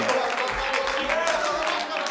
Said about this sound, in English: but if you're hungering for a move of the Holy Ghost, I want you to clap your hands and shout with everything you got.